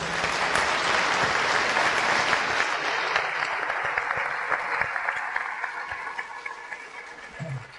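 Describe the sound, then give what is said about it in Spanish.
A group of classmates claps together in sustained, dense applause for fellow classmates, gradually thinning out toward the end, with scattered individual claps trailing off. “Un aplauso a sus compañeros, por favor.”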